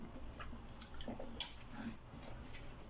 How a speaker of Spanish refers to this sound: Y mientras, voy a tomar agua.